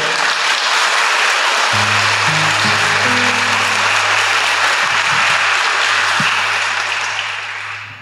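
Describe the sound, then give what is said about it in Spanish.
A church audience applauds the Lord Jesus steadily and loudly for several seconds, a dense wash of clapping, while low keyboard chords enter beneath it; the applause thins out near the end. “Le damos un fuerte aplauso al Señor Jesús por eso.”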